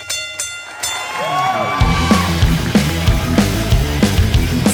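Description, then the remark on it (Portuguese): A wrestling ring bell clangs several times in quick succession, its bright metallic ring hanging in the air, before a loud roaring crowd and steady rhythmic thumping take over. “Bora, então toca a sineta aí”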